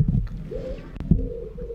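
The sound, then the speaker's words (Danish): A dove on a balcony coos in low, hollow, drawn-out notes, steady, with a soft thump partway through and no one talking. “Kan I høre den her due?”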